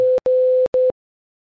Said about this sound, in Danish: Nu ringer den. Den ringer? Ja. Ej, hvor er det spændende.